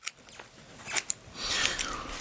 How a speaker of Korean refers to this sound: 미용 가위로 삐져나온 콧수염을 잘랐다.